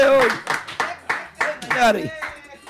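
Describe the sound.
Steady rhythmic clapping, roughly two or three claps per second, mixed with loud excited voices that shout and whoop over the beat throughout.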